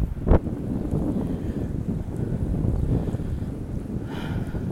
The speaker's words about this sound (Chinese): 这个风声也很不适合当广播听。